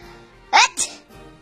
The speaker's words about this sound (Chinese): 火帽子又打了一个大喷嚏，这个大喷嚏真有劲儿啊！胖胖的熊爷爷都被喷嚏冲了一个跟头。